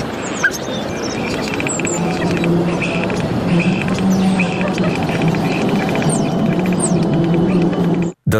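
A starling at Amsterdam Centraal Station mimics a rolling suitcase, a steady clattering, ticking rattle lasting several seconds, with thin high chirps and whistles scattered over it before it cuts off abruptly.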